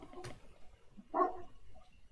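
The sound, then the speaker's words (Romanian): A dog barks twice, a short sharp yelp followed a second later by a louder, tonal bark, with faint background noise and no talking. “Câine? Cine are câine?”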